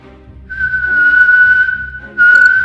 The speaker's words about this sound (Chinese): 啊，又吹了口哨。这一次比之前的更响，音调也不同，而楼上也发出了更大的声响。